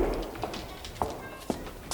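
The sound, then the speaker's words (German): Footsteps approach at an even pace, four or so distinct thuds about half a second apart, moderately loud against a quiet background with no talking. “Plötzlich nahten Schritte.”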